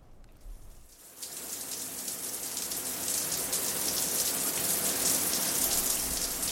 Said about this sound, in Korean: 여희는 아무 생각 없이 샤워기의 물줄기에 몸을 맡긴다.